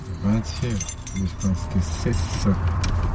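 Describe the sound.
A keyring with many keys jangles and clinks in quick, irregular bursts as the keys are tried in the locks of a garden gate, front door and apartment door at a house in western Munich, with a low murmuring voice underneath.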